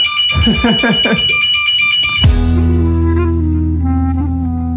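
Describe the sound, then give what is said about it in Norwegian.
A person talks briefly, then a loud fire alarm in a building starts abruptly, a steady, continuous electronic tone that keeps sounding to the end with faint voices underneath. “så gikk faktisk brannalarmen i både mitt bygg her i Oslo og eh, hos deg i, i England, tydeligvis.”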